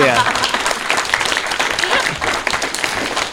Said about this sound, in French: on peut vous applaudir pour cette spécialité.